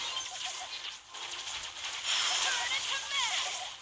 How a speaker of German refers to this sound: Yep, Ult. Hat man, glaube ich, gehört. Ist jetzt am Start.